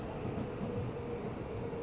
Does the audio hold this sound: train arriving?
yes